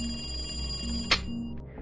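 A telephone rings again with a steady, shrill electronic tone for about a second, then a sharp click cuts it off as the handset is picked up, leaving a quiet background hum.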